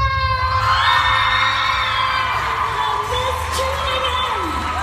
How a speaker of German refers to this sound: Großer Jubel und noch größere Freude, als die bisherige Miss Germany Leonie von Hase im Europapark verkündet hat, wer bei der diesjährigen Wahl ganz oben auf dem Treppchen angekommen ist.